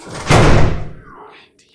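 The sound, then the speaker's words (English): A single heavy blow of a man's axe smashing into a wooden door to break it down, a loud crash with a splintering rumble that fades out over about a second. “It's such a shame to break such a beautiful door. Here he is, with the axe, and yet.”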